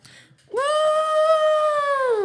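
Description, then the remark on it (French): A person imitates an elephant's trumpet with one loud, sustained, high-pitched blare lasting nearly two seconds. It swoops up at the start, holds steady and buzzy, then dips slightly as it ends. “Je suis obligé d'imiter la trompe en hein.”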